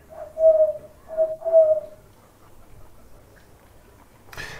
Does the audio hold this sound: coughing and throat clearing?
no